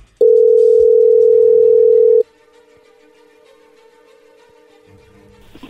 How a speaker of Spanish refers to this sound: Muy bien, no haga ruido, ahí entró la llamada.